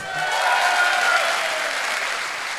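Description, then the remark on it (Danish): An audience at a film talk claps steadily to show how many of them have seen the film that day, a dense wash of many hands at a fairly loud, even level throughout, with no one speaking over it. “Ja, klap.”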